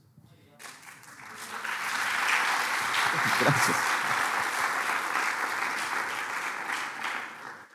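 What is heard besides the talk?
audience applause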